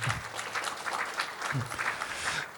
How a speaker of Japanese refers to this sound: もしご賛同いただければ拍手をいただけるとありがたいんですけれ